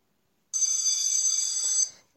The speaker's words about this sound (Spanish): Escuchó el timbre de la casa de al lado